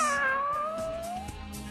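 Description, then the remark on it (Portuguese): A single long, drawn-out cat meow, loud, its pitch sliding slowly upward before trailing off, with no talking around it. “Um alô para o José Roberto Generoso, que nos acompanha do Guarujá, e também para o Jesuíno Otimundo de Interlagos, ouvinte assíduo do Pulo desde 73, fazendo aniversário hoje, 70 anos, e ganhando um miado”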